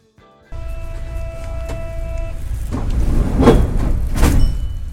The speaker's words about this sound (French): Euh, attends, je trouve une, euh, un son de métro.